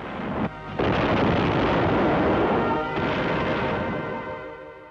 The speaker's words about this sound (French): C'est vrai que ça nous surprend des coups de canon pour annoncer une bonne nouvelle.